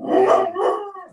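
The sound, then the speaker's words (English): A four-pound chihuahua barks and howls in a short, shrill burst of two yelping, wavering cries that trail off; no one speaks. “oh, I just I just had to blank out my screen to go kill a four pound chihuahua that was barking like crazy.”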